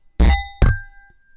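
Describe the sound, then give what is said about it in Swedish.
Two bright glass clinks, close and loud, each ringing briefly with a high metallic tone as glasses touch in a toast, followed by a faint tap. “Woo, skål på den!”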